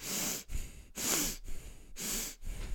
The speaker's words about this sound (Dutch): Vervolgens ehm, ga je heel bewust vrij snel je ademhaling doen. En dat gaat eh, tien keer.